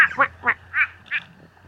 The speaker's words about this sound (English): Oh, I think it just replied to me. Oh, yeah, I am talking to a quacking frog. What a funny nature noise.